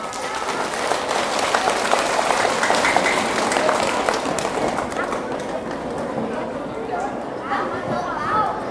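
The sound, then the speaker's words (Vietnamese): A loud, sustained round of applause from a crowd of children, dense rapid clapping that stays steady for several seconds before thinning slightly toward the end. “nếu các cháu thấy rằng từ bỏ việc ăn vụn vặt ăn nhanh ở ngoài đường ở trước cổng trường và chịu khó ăn cơm ở nhà trước khi đến lớp là có thể thực hiện được trong tầm tay thì hãy dâng cao tràng vỗ tay thật lớn”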